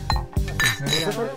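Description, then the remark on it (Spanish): Several glasses clink together in a quick toast, bright ringing taps, with voices murmuring underneath. “Vamos a brindar. Bueno, brindamos porque el programa tenga más rating que ninguno.”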